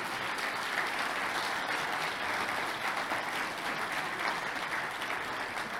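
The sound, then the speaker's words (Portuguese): An audience applauds the Lord loudly and steadily, a dense wash of many hands clapping with no pauses, continuing at an even intensity throughout without any voices standing out. “Vamos aplaudir ao Senhor bem forte.”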